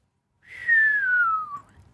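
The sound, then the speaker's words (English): A single soft whistle glides slowly downward in pitch for about a second, ending with a faint upward flick, alone without any talking. “Callie whistled softly.”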